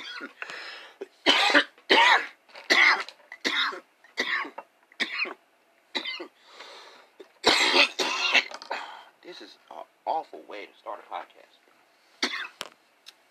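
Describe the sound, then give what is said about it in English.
A person who has been smoking coughs over and over in harsh bursts at a desk in a bedroom, a rapid fit of hacking with brief pauses and a bit of throat clearing between coughs, loud. “It's like 30 minutes of me coughing, 30 seconds of me coughing like an idiot.”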